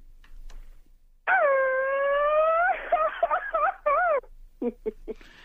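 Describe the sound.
A voice imitates a mariachi cry: one long, loud, rising wail, then a warbling trill and a few short, sharp yelps, without other talk.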